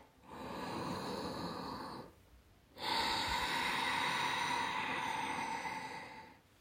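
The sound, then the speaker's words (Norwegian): Two long, loud, hissing ujjayi breaths drawn through a constricted throat, as used in ashtanga yoga, one lasting about two seconds and the next about four, separated by a brief quiet pause. “Ganske høy lyd. Du kjenner det litt oppi ganen. Det heter ujjai pust og brukes i ashtanga-yoga.”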